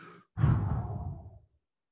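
A quick, soft inhale followed by one long, forceful exhale, loud at first and trailing off after about a second, with no talking. It is a breath from the Wim Hof breathing technique, which is repeated some 10, 20 or 30 times.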